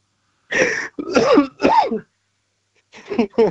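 A harsh, strained coughing fit: three loud, rough coughs in quick succession, a short pause, then a few more hacking, throaty bursts, forceful, like someone choking.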